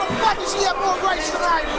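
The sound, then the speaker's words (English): A large crowd booing at a convention, a steady, dense roar of many voices that holds at an even loudness for the whole short stretch. “Yeah, I mean, this is what if we went to Vegas, the all the booing.”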